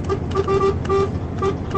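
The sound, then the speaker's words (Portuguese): A truck horn honks in a series of short, loud toots at an uneven rhythm, sounded by a truck driver on the road, over a steady rumble of engine and road noise. “A buzina comprovando.”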